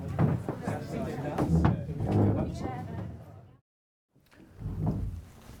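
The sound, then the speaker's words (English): Chairs scraping and clattering across the floor as people from an inner circle move them back into one large circle, with murmuring voices, a brief pause, then another burst of scraping. “Could, could the people on the inner circle move their chairs back to um, the circle, please?”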